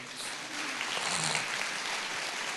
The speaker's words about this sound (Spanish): Dale un aplauso de gloria